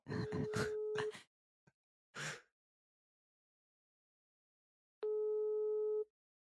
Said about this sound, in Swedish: Du, du är ju sjuk i huvudet också som ringer 40 signaler.